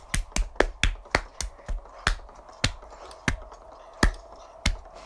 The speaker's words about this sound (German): Und wenn ihr es schon bis hier hört, dann Applaus für euch. Ihr seid meine besten Hörer. Und das ein Applaus für euch.